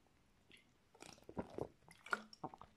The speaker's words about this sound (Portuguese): Mas é isto, vou fazer uma pausa para beber água, desculpem.